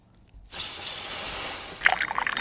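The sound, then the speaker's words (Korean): Hot water is poured into a coffee cup: a sudden, steady hissing stream of liquid that runs for well over a second, then breaks into brief splashy gurgles and drips as the pour ends. “그러니까 뜨거운 물 따르는 소리였습니다.”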